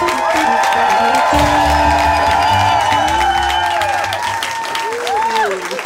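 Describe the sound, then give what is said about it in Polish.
A large audience at a show in Warsaw claps and cheers loudly and steadily for several seconds, a dense wash of applause with shouts and whoops rising through it, continuous throughout. “na niego wielki hałas! Wielki hałas!”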